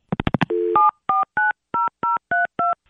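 A few quick clicks and a short dial tone, then seven clear keypad beeps pressed at an even pace, each a crisp two-pitch tone, loud with no talking, as a phone number is dialed to try to call a man.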